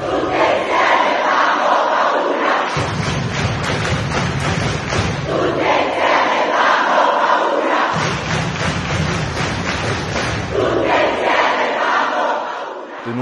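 A large protest crowd in Italy roars and shouts together during a minute of noise against patriarchy, loud and sustained, with collective yelling swelling in waves and low rumbling thuds underneath, easing slightly near the end.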